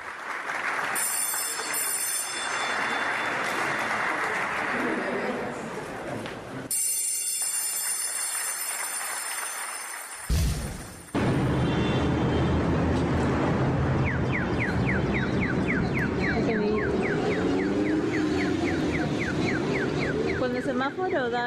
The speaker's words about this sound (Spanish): Se escucha un sonidito. Bueno, continuando con nuestra historia sonora, esto que estábamos escuchando es uno de los muchos diseños de semáforos peatonales que encontramos en esquinas eh, aquí en la Ciudad de México y en algunas otras ciudades